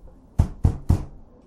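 Three firm knocks on a door in a steady rhythm, fairly loud, each with a low thud, followed by a brief quiet pause.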